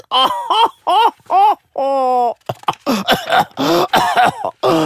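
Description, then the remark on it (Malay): A loud run of exaggerated coughing: a few voiced, groaning hacks followed by a series of rough, harsh coughs, performed by a person as an imitation of an old man's cough. “Batuk dah tua-tua”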